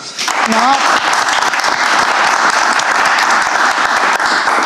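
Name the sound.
applause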